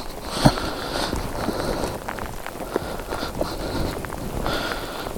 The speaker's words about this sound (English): The problem with the rain is it just makes everything just a little bit slippier.